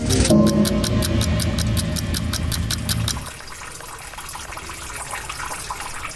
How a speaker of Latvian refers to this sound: Tas ir pirmais, kas ienāk prātā stāvot vēsajā Alepo vecpilsētas senā tirgus tunelī. No sienā izrauta betona gabala uz grīdas tek ūdens.